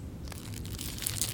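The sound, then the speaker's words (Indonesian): A plastic bag full of chocolates crinkles and rustles continuously as it is held out, with a few sharper crackles toward the end; no voices are heard. “Istri saya mengulurkan sebuah kantung plastik yang penuh coklat.”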